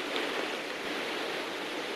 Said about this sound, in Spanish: vamos a oír ruido porque están en el coche bajo una tormenta, está lloviendo